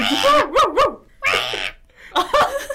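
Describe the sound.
A person imitates a dog barking in a playful cat-versus-dog imitation contest: three quick, pitch-wavering yips in a row, then two longer, rougher barks after short pauses. It is loud, voiced and strongly tonal.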